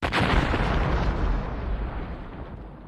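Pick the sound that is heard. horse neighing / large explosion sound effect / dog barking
large explosion sound effect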